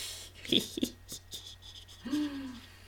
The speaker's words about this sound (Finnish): Ja tässä saattaa äsken kuulla koiran lipomista.